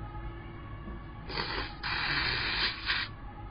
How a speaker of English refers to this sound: One second. Let me blow my nose.